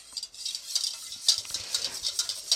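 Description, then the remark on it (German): A utensil stirs hollandaise sauce in a pot set over a gently simmering water bath, with a steady run of soft scraping and light clinks, repeating in a quick, uneven rhythm at low volume, with no voices. “Das ist äh, so ein bisschen verrühren.”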